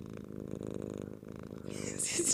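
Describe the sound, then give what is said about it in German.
A female cat with a small spot on her face and a belly spotted with white purrs steadily, a low rumbling drone with a soft rhythmic pulse, joined near the end by a brief breathy, hissing noise. “richtig angepisst. Aber sie schnurrt.”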